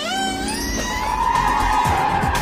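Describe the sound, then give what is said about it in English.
A car engine revs hard and loud in a car chase, its pitch climbing steadily as the vehicle speeds along, with rumbling road noise and a hint of tire screech underneath. “We're in the car chase.”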